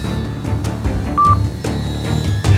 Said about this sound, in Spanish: Ahora mismo no puedo atenderte. Si es algo urgente, deja un mensaje después de la señal.